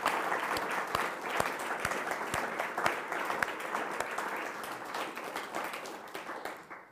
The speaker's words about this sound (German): Applaus